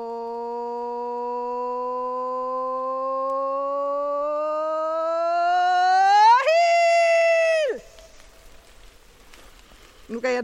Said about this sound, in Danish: sådan kan det lyde, når man påkalder. Det lød enormt kraftigt hos mig. Det er sygt. det, det er i hvert fald en måde, man kan virkelig få stemmen op, og man kan fokusere.